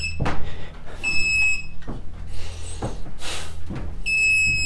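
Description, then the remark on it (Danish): A bug detector, held against a wall to search for hidden microphones, gives two steady, high-pitched electronic tones, each lasting about half a second or more, amid handling thumps and rustling. “Der skal komme en konstant tone eller en hurtig, meget hurtig biblyd.”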